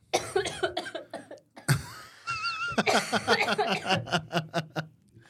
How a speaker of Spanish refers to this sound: Ay, no, es que fíjate que de repente estos días he sentido como se me seca la garganta, como en ese momento de. y me da una tos bien feita.